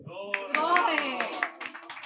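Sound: applause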